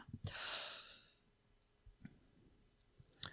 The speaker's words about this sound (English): Oh, well that was a loud yawn then.